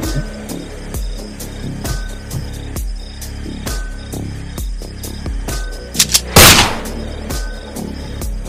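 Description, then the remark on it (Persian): During a Mafia party game, a single sharp gunshot sound effect for the Professional's shot cracks out loudly near the end, cutting through a steady, throbbing electronic music bed with a regular beat. No one speaks. “یه نیم شلیکی داشت حالا باید ببینیم چی شد و چی نشد البته شاید هم نداشت”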